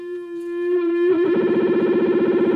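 An electric guitar amp set to a blend of a distorted and a clean channel, with the blend swept back and forth by foot control: a smooth sustained note for about a second, then the tone turns dense and gritty with a rapid, steady pulsing throb, loud and without voices.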